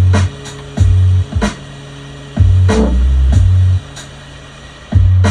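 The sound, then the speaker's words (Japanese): A dry, unprocessed saxophone sample, the original sound before filter and reverb are added: a riff of low, buzzy held notes in short repeating bursts with brief gaps between them, loud, with no talking. “今この このサックスの音のこう編集ばっかやっちゃってますけど。1回目じゃあ、ノーマルの音ね。元の音。”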